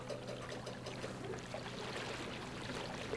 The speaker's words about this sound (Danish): Selvstyren, den styrer båden lige nu. Og jeg prøver på at holde sejlene skak, skulle jeg til at sige. Det går sådan nogenlunde. Der er ikke meget vind lige nu. Jeg siger den 1 meter per sekund. Vi glider lige så stille afsted. To knop.